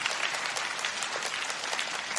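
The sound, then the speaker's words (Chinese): An audience applauds steadily, a dense wash of many hands clapping at an even, moderate loudness throughout, with no voices standing out. “看样子你们鼓掌鼓得不甘心的样子，有一些嫉妒吗？”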